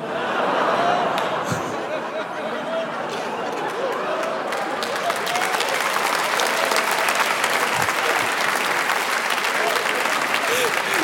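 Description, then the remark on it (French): A large audience at a comedy show claps continuously and loudly for about eleven seconds, a dense, steady wash of applause that swells slightly midway, with faint crowd chatter underneath. “Vous m'applaudissez, je, me dégoûte, frère.”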